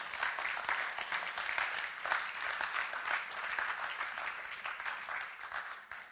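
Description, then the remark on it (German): An audience claps for students, steadily for several seconds, a dense, even wash of many hands with no voices standing out, holding at a fairly constant level before easing slightly at the end. “Lass uns mal unsere Schüler mal einen riesen Applaus geben.”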